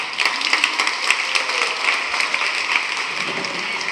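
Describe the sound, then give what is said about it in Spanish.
A crowd applauds for the women steadily for a few seconds, a dense wash of many hands clapping at once with no voices over it, holding an even loudness throughout. “Aplauso para las mujeres, por favor.”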